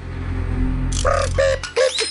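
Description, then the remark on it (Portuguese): A door creaks open in a few drawn-out, squeaky groans that rise and waver in pitch, following a second of low steady hum. No one speaks. “A porta se abriu.”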